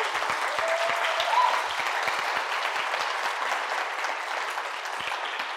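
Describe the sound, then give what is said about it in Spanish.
Steady audience applause given as an applause of love for listeners on Spotify and other platforms, dense and even, with many hands clapping at once in a continuous wash that holds a constant loudness for several seconds. “Y les damos en este momento un aplauso de amor a todos ellos bien fuerte, por favor.”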